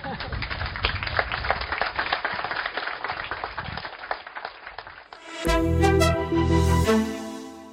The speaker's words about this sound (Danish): Sådan fortjente klapsalver til Bertel Hårder og Helle thorning her på Bornholm.